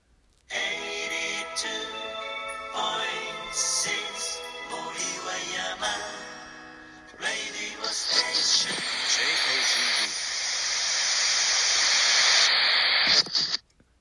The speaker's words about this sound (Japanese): ほんでね最後に1個ねめっちゃ謎なやつがねあってね「波よ聞いてくれ」オープニング BGM いきますよ。